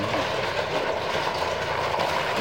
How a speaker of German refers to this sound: So, der Laster ist gleich vorbei.